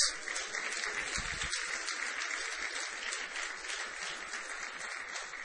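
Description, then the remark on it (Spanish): An audience applauds God steadily, a dense wash of many hands clapping at once that holds at an even level throughout without pausing or building. “Le damos un aplauso a nuestro Dios.”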